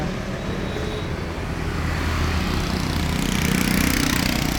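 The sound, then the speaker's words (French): Dense Vietnamese street traffic hums steadily, with buzzing motorbike engines and cars passing in a continuous, loud wash of motor noise, growing slightly busier toward the end. “Nous pourrons enfin goûter aux joies de la circulation vietnamienne.”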